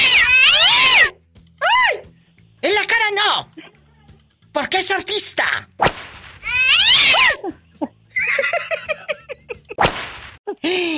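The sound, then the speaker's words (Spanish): A cat yowls and caterwauls loudly in drawn-out, wavering wails, with sharp hissing bursts between them and a person speaking briefly over the commotion. “No aguanto lo reguño que me dio el gato anoche.”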